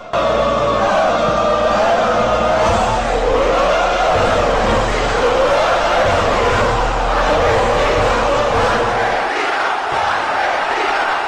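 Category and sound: crowd, stadium crowd shouting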